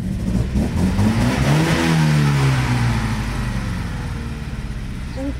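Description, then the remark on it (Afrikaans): A front-engined sports car, with its gearbox and differential at the rear, revs as the accelerator is floored. The engine roars under full throttle, its pitch climbing sharply and then holding at a loud, sustained howl, with no one talking over it. “Mens ref nie af van hom maar hoor as ek die lepel indrap.”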